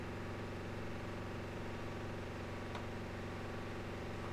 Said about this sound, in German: Das ist ein sehr analoger Sound. Ja, meine Waschmaschine ist jetzt fertig. Also die letzten Züge sozusagen.